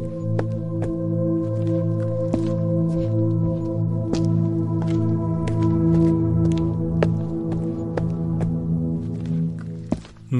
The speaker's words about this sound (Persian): فقط صدای قدم های من بود که خاموشی عمیق آنجا را به هم زد